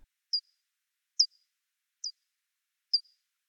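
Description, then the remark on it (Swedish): Four short, evenly spaced downward-sweeping chirps, each a brief bright blip followed by a faint tail, sounding like bat echolocation pulses slowed down to audible pitch, isolated against silence. “Frekvensen på de här ljudpulsarna ligger på nära 50 000 Hz, det vill säga långt över vår normala hörselförmåga.”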